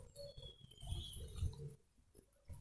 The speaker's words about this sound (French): Une brouette passe